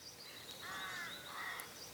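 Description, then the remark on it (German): Soft spring birdsong at a vineyard, with several birds chirping and calling in overlapping phrases over a quiet outdoor background, and no one speaking. “hört ihr die Vögel und dieses Frühlingsgezwitscher und so?”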